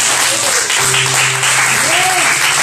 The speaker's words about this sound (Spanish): Alégrese, grita, aplauda.